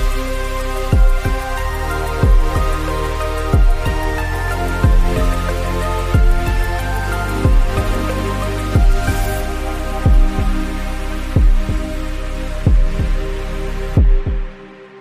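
Short instrumental intro music: sustained synth chords over a steady, deep pulsing beat like a heartbeat, roughly one thump per second, playing loudly without voices before stopping abruptly.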